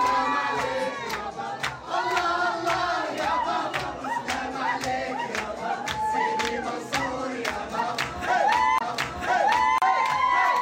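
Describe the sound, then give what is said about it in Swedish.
A lively crowd at a Persian-Arab party cheers and shouts together over a steady, driving beat of sharp rhythmic hits, with wavering high voices rising above the loud, continuous din. “Jag tänker vi kan ju slänga in ett litet ljudklipp från det här. Så här lät det för fem timmar sedan.”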